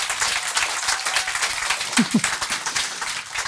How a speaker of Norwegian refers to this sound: Hun er nummer én i dag. En liten applaus til det.